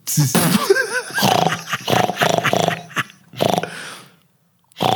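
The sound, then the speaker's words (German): In a guessing game, a voice imitates a pig, opening with high wavering squeals and then several rough, snorting grunts in quick succession, loud and alone, before a short pause and one last burst. “Es war ein Schwein. Also Schwein richtig.”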